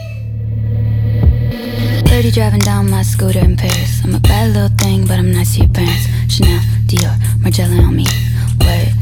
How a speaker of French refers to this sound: Ce morceau, beaucoup plus insouciant et évident, garde un goût prononcé pour la pop industrielle.